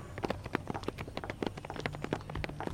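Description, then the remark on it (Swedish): A woman's high heels click sharply on the asphalt of a parking lot on a foggy evening just after sunset, a quick, hurried run of steps, fairly loud, with a faint low hum underneath. “Vi hörde hennes klackar över asfalten.”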